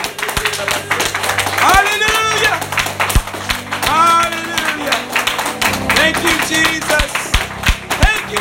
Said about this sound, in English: If you believe God is worthy tonight, let's not you just go ahead and give Him a great big clap offering. Go ahead and thank Him. Praise God.